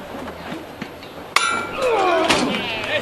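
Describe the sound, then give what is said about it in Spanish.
A single sharp, ringing metallic knock of a hammer signals the lifting of a religious procession float carrying a Virgin statue, against a murmuring outdoor crowd, followed by a swell of bright, jangling movement and noise as the float is lifted and flower petals fall from it. “Ahí suena el martillo y tras la levantada se desprenden algunos pétalos de flores de esa petalada que, que había recibido la Virgen al salir de la iglesia.”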